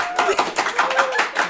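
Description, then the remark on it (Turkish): Applause from a small audience of about 50 spectators, a dense patter of many hands clapping steadily, with faint tonal voices or whistles sliding through the clatter. “ya resmen 50 seyirci sesi böyle bir şey olamaz yani.”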